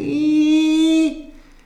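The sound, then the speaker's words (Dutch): The gate of a villa squeaks once in a long, steady, whining tone lasting about a second, loud and rich, then cuts off abruptly into quiet. No one speaks. “Ineens hoorde hij het gepiep van het hek”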